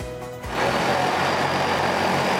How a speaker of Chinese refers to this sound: 无人机升空扬长而去，这一回不是要去空袭，也不是要去刺探敌情，而是瞄准飞行市场，成为新时代的飞天小黄。